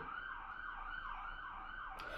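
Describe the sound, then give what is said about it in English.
A loud emergency vehicle siren wails in a fast, repeating up-and-down pattern, cycling several times as it passes through traffic, over a steady background of traffic rumble. “They just want to get through traffic.”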